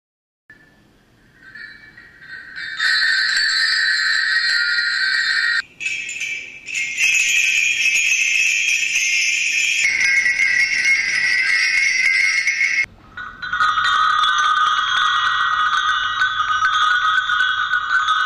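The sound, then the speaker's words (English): A hand bell rung by a father to call his child when he needed anything rings insistently. Its bright metallic jangle stays sustained and loud for about fifteen seconds, with a couple of brief breaks where the pitch shifts; no one speaks. “When he needed anything, he would ring the bell to call me.”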